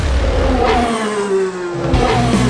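A car engine revs loudly, its pitch sweeping up and down in steady harmonic tones over a constant rumbling roar, with no voices.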